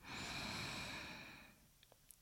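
A single long, loud breath drawn in through the nose during meditation, airy and hissing for about a second and a half before fading, with a few faint clicks afterward. No one speaks.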